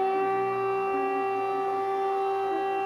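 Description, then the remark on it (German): A steady, sustained fire brigade alarm siren holds at a constant pitch, loud and continuous throughout, with no voices present. “Die Alarmierung der Feuerwehr erfolgt über Mail oder die Sirenen.”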